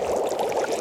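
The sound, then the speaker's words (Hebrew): Steady bubbling and crackling of hot frying oil, a dense continuous sizzle with no voices. “זה רעש של שמן מבעבע.”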